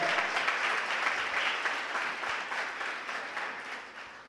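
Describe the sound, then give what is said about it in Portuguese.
An audience applauds the Lord with steady, dense clapping that holds strong throughout and tapers off slightly toward the end, with no talking over it. “Você pode aplaudir o Senhor, ele se manifesta em você.”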